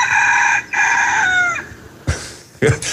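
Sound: rooster crowing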